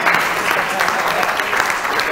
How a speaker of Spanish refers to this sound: Bueno, si aplaudimos al matrimonio, hágalo bien, pues, porque si no,